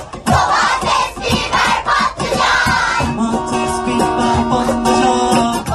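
A large crowd sings a song together, loud and sustained, with clapping and cheering at first, then steady held melodic notes as many voices carry the tune in unison.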